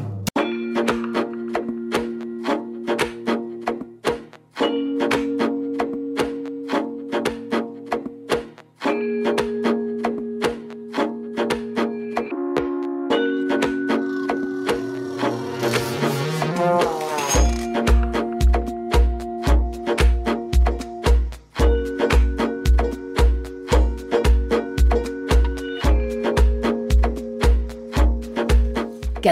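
Upbeat recorded band music played on Jalisco Radio 963, with a steady ticking beat and repeating keyboard chords; partway through, a rising sweep leads into a fuller section with pulsing bass. No one talks over it.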